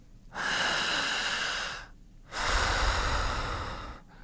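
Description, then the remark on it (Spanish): Two long, forceful breaths, each a broad rushing airflow lasting over a second, separated by a brief pause, with no talking; a breathing technique used to induce synchronic hypnosis. “que es la hipnosis sincrónica, un proceso de inducción de hipnosis que se basa en esta respiración que ya conociste.”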